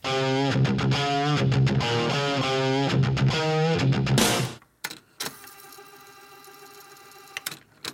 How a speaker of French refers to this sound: bah justement, on, sort du très vite pour aller vers du très moins vite, du très du mid tempo, du, voire du low tempo. Oh putain de merde. avec un, un groupe de heavy goth metal qu'on écoute tout de suite.